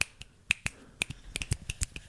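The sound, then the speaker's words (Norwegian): A quick, uneven run of about a dozen finger snaps made with the left hand, some crisp and others soft and feeble, with irregular spacing and no talking. “Mitt problem er da, er at jeg knipser jo kjempedårlig med venstre hånd.”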